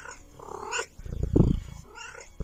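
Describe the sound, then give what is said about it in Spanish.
A cat named Lupe meows, a drawn-out cry at the start and a shorter one near the end, with a low rumbling noise in between and no talking. “Me estoy refiriendo a todos los gatos en general.”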